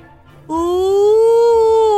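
A big, drawn-out yawn: after a brief hush, a loud voiced 'aah' starts abruptly, glides slightly upward in pitch and holds steady for about a second and a half.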